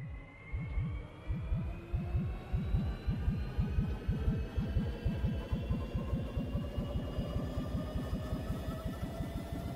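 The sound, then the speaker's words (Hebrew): A strange machine is switched on and hums to life with a rapid, steady throb of low pulses while thin tones above slowly rise in pitch. It sounds even, with no voices. “תפעילי כבר את המכונה, אני במתח, מקווה שלא יקרה להם שום דבר.”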